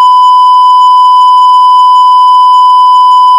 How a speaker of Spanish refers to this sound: Madre mía, cuántos pitidos tienes que meter